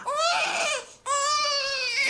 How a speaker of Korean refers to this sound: 잠투정을 하며 울기 시작하자 정말 전화벨이 울리기 시작했다.